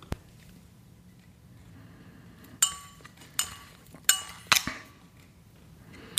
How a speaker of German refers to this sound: Dann machen wir mal die Flasche auf und schauen uns mal den Wein im Glas an.